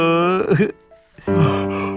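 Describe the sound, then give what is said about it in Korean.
A person at church in the morning before a service gives a drawn-out, voiced yawn rising and sagging in pitch, a short quiet pause, then a second long, sustained yawning groan, fairly loud. “너는 밤에 뭘 했길래 아침부터 하품이냐?”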